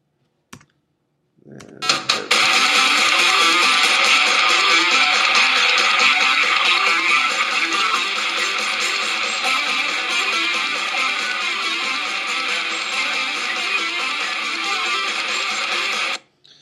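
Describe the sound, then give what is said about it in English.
Nintendocore music, loud heavy band sound blended with buzzy 8-bit chiptune tones, starts abruptly after a brief click and drives on with a fast, steady beat for about fifteen seconds, then cuts off. “Anyways, so that's what Nintendocore sounds like.”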